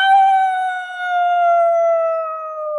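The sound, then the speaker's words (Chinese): A single long howl from a wolf outside a concert hall, neck raised, holds a steady, slowly falling pitch for about three seconds, rich with clear harmonics and no other sounds around it. “为什么狼喜欢在黑夜里嚎叫？”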